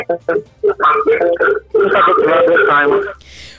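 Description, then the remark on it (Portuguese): A muffled, narrow-band voice of a listener calling a radio phone-in on a mobile phone, garbled by interference from the caller's own radio receiver playing nearby, running continuously and ending in a short burst of hissing static. “Caríssimo, estamos a ouvir aqui com interferência.”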